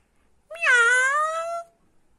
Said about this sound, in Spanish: Miau, miau, miau, así despedimos al gatito Yugo Yugo, que hoy nos contó algo muy importante de la letra M.